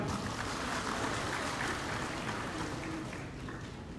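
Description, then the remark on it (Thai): A crowd applauds steadily to thank all the sectors involved, a dense wash of many hands clapping at once that holds for several seconds before easing slightly toward the end. No one speaks over it. “ขอเชิญชวนทุกท่านปรบมือขอบคุณทุกภาคส่วนอีกครั้งหนึ่งครับ”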